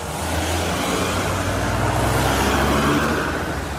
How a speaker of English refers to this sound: Imagine the drive home after a day of work. In a South Carolina spring, your windows might be rolled down like mine. Either way, you're enjoying the ride as other cars move by.